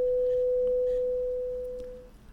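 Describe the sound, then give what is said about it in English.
A patient's heart monitor, with nurses and residents present, gives a single unbroken tone that holds steady at one pitch for about two seconds, then cuts off, leaving faint background hiss and no voices. “The only sound was the heart monitor.”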